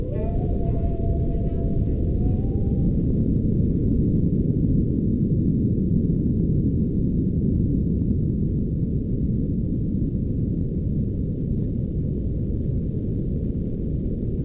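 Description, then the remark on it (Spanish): Deep-sea underwater sound from the Challenger Deep, 11,000 metres down: a steady, dense low rumble that fills the whole stretch, with a faint wavering tone gliding at the start and thin high hums running throughout. “Estamos escuchando el sonido de un lugar en el que nunca ha estado nadie, a 11.000 metros de profundidad.”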